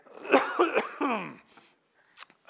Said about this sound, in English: I got a cough again, sorry.